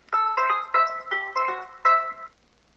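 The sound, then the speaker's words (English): A bright electronic chime melody of about six quick tonal notes plays clearly from the speaker of a voice assistant device, an alarm tone being previewed, bell-like and tuneful, then stops, with no voices. “Say sound six. Sound five. Alarm One will play.”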